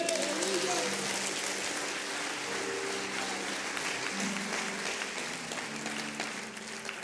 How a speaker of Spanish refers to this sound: ¿Alguien puede aplaudir a Jesús por eso?